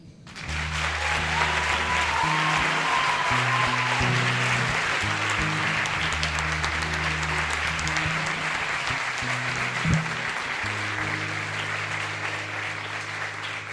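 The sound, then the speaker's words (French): An audience applauds loudly and steadily for about fourteen seconds, welcoming a speaker onto the stage, a dense wash of clapping with low, sustained musical notes playing beneath it and no talking. “Merci d'applaudir très fort Virginie.”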